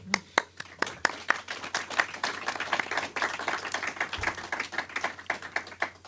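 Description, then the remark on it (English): An audience claps steadily for a panel for several seconds, a dense patter of many hands with a few sharper individual claps standing out at the start, holding fairly even in loudness throughout. “So thanks very much for listening to us today, and, and please give it up for my, my lovely panel here.”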